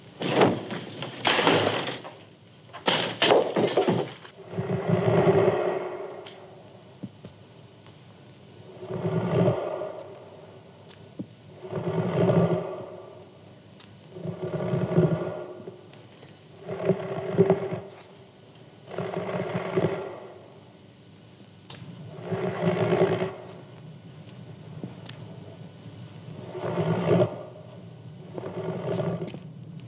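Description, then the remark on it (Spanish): An eerie, rasping breathing sound effect of a mummy's heavy breaths, repeating in a slow, steady rhythm about a dozen times, loud and growling, with no talking. “Ese ruido de cortinas es, claro está, que nuevamente la momia se viene al humo y oigan su espeluznante respiración.”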